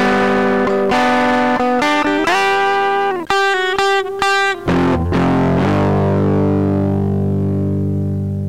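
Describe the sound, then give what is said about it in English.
A short, loud burst of distorted electric guitar, an audio sting called the car camping bump: a few stabbing chords and a quick riff, then one sustained chord left ringing out and fading. No voices. “We got the car camping bump.”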